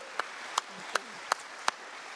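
An audience gives a round of applause: five sharp, evenly spaced claps ring out in unison in a steady slow rhythm over a low, hissy background.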